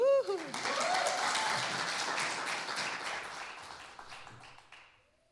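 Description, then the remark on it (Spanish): A crowd breaks into warm, sustained applause for a pop folk singer being introduced, dense clapping that holds steady for several seconds before gradually thinning out, with a brief voice-like tone at the very start. “Gracias por su caluroso aplauso”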